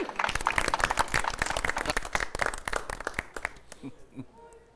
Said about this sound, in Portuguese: Gostaram? Pode aplaudir.